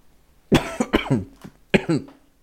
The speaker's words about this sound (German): Schöner hätte es nicht husten können.